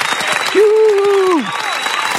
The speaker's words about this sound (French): On t'applaudit d'avance, tiens, écoute.